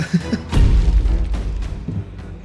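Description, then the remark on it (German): Dice rattle and tumble across a tabletop with a burst of hollow clacks and thuds, then a few scattered knocks as they settle. “Aber du zählst, wie oft du würfelst, ne?”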